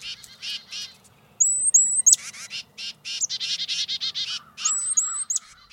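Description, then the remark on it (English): Harsh, buzzy alarm calls of titmice or chickadees, warning other birds of predators, repeat in rapid bursts, mixed with a few thin, high whistled notes, fairly loud with no talking. “Both make alarm calls that can help warn other birds about predators, so other species are likely much safer in the flocks that titmice and chickadees help keep organized.”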